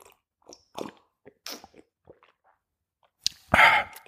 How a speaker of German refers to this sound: Ich trinke einen guten Tee. Hier kann man mal hören. Moment.